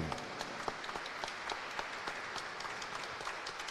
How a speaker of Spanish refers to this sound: Le damos un aplauso en sus 25 años de trabajo.